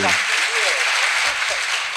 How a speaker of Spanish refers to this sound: Aplaude el público, gracias muchachos, gracias.